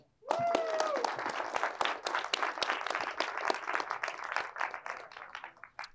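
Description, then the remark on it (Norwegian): A film screening audience bursts into sustained applause for the evening's projectionist, Hans Erik, many hands clapping densely for several seconds at a steady, fairly loud level, with a brief whistle or cheer near the start before it tapers slightly. “Og ikke minst gi en stor applaus til kveldens maskinist, Hans Erik.”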